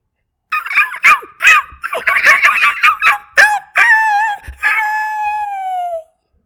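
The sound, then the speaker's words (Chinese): Stray dogs on a street at night yelp and whine in a quick run of short, high, strained cries, then break into long howls that waver and slide downward before fading out. No talking. “爸爸丢了一个木头赶走流浪狗之后，过了没几天，晚上啊，突然街上传来了一个声音哦。”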